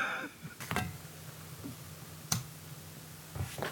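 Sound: lighter being flicked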